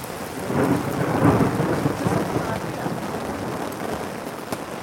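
A thunderstorm: a deep roll of thunder swells loudly in the first couple of seconds and fades, while heavy rain keeps up a dense, steady hiss throughout.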